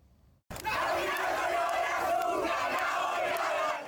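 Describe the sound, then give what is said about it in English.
A loud crowd of Argentina soccer fans outside the Lusail Stadium in Qatar erupts suddenly after a brief quiet moment, cheering and shouting together in a sustained, dense roar of many voices that continues without letup, celebrating Argentina's third World Cup win. “There were smiles all around for Argentina soccer fans as they jumped, danced, and shouted outside of the Lusail Stadium in Qatar following Argentina's third World Cup win.”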